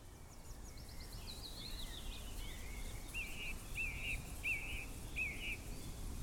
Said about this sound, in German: Sie lauscht den Blättern im Wind und den vielen Vögeln, die um sie herumzwitschern.